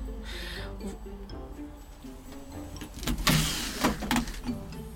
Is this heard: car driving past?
yes